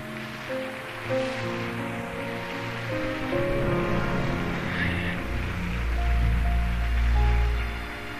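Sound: applause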